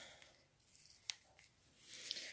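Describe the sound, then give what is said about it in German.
Quiet crinkling and scraping as the sticker-sealed packaging of a new eyeshadow is picked at to open it, with a sharp little snap midway and soft tearing rustles toward the end; no one speaks. “Da ist noch ein Kleber dran, ja, sagt mir das gleich. Kriege ich das ja nie auf hier, meinen neuen Lidschatten.”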